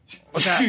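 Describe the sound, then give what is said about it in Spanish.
A single sharp sneeze caused by allergies: a brief faint intake of breath followed by a sudden loud hissing burst that lasts a fraction of a second. “Épocas de, Benditas alergias y me alergias, encantan, amigos.”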